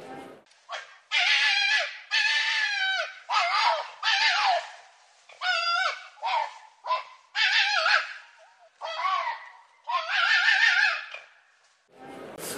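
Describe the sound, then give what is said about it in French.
A fox cries out in a rapid string of about ten harsh, raspy yelps, loud, each burst short and strained, with no talking over them. “C'est incroyable le cri du renard.”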